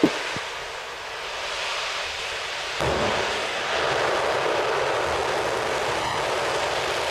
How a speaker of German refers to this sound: Also wir haben diesen Moment natürlich für die Ewigkeit dann doch mal festgehalten, als Juice mit der geballten Kraft der Ariane 5 von der Startrampe abgehoben hat. Das klingt dann immer folgendermaßen.